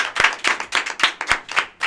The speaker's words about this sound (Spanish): Así que un fuerte aplauso para el sector.